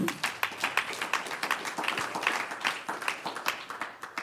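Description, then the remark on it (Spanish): An audience bursts into steady applause for the Lord, many hands clapping in a dense, crackling rhythm with sharp individual claps standing out, holding a fairly even loudness for several seconds. “Un aplauso al Señor.”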